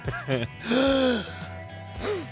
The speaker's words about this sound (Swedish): flämtar till.